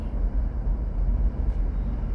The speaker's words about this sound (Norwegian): Når det er en buss i rundkjøring som tok litt for slake sving, så han må rygge tilbake og prøve en gang til.